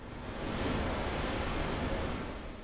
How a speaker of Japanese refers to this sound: 会場のファブカフェに着く前にちょっとだけ五条の鴨川のね、川の音、サウンドスケープしてたんですけれども、その音を BGM に流しています。